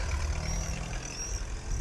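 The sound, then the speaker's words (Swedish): A Finnish raggare cruiser car's engine idles in Finland with a steady, deep low-end rumble, continuous, with no talking over it. “Jag befinner mig i Finland och där är en finsk raggarbil.”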